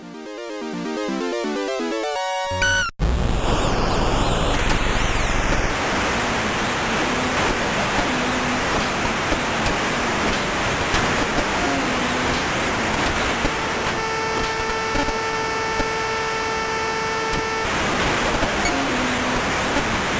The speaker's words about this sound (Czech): Ale zvukově se snažili vývojáři alespoň dodat pocit skandujícího davu.